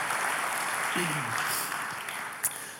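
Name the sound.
audience applauding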